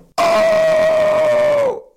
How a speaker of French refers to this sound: Alors la respiration sonore, c'est quand on inspire,